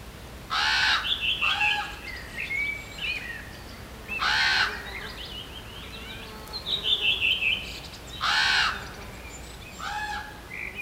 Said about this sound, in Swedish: Det är inte bara korp vi hör där. Nej, det är bland annat koltrast och rödvingetrast som sjunger. En, eh, kanske en humla eller en geting som flög förbi också.